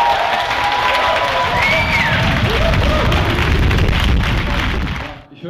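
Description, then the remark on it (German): An audience at a preview horror screening of The Blair Witch applauds loudly and steadily for the people from Flimme, a dense wash of clapping with scattered cheers and whistles, holding for about five seconds before cutting off abruptly. “Dann ähm, gebt doch nochmal bitte, bitte einen dicken, fetten Applaus für die Leute von Flimme”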